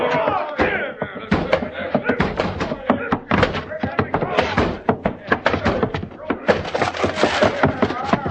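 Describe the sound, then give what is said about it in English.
Repeated heavy thuds and bangs against a door as a crowd of men tries to break it down, coming in an irregular pounding rhythm, loud, with shouting voices of the crowd mixed in throughout. “Break that door down.”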